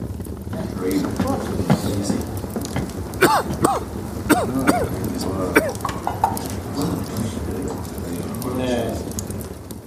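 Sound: man coughing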